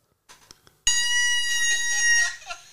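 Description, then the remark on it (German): A voice imitates a woman's odd, squeaky laugh: one loud, sustained, high-pitched squeal lasting over a second, preceded by a few faint breathy clicks and trailing off at the end. “Es ist wie, wie, so ein Luftballon, den man auslässt.”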